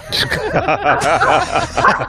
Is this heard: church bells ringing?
no